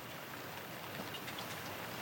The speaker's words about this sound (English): It was hard to see anything in the night and the rain. Quiet, too. At four in the morning, most of Oakland was asleep.